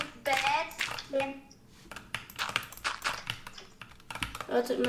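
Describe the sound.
Rapid, irregular clacking of keys on a computer keyboard, fairly loud, with brief bursts of voices talking over parts of it.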